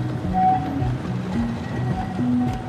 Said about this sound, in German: Straßenbahnen aus Sowjetzeiten kreuzen durch die Gegend.